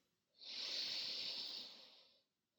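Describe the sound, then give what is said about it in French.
One long, deep breath drawn in through the nose, a steady airy hiss lasting nearly two seconds before fading, with no talking around it. “Prenez une grande inspiration par le nez.”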